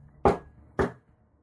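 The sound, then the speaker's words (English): Two firm knocks on a door, about half a second apart, each a sharp thud with a brief fading tail, followed by quiet with no voices. “as the door knocks.”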